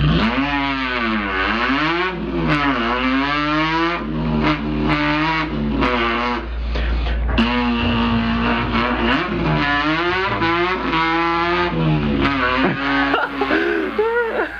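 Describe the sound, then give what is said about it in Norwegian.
A person imitates a car engine with their voice, a buzzing, continuous hum that revs up and down in pitch in repeated swoops, loud and steady throughout, with no talking. “Dette kan jo være en måte å lage billyder på.”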